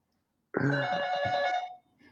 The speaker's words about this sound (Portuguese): Estás fora? Toca a campainha que eu abro a porta.